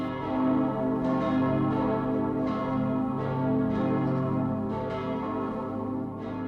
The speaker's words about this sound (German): Und diese zehn Glocken, wenn man die dann alle gleichzeitig hört, das ist schon ein emotionaler Höhepunkt. Es hört sich ganz toll an, wenn lauter Glocken gleichzeitig erschlagen. Dann weiß man, jetzt es ist Weihnachten.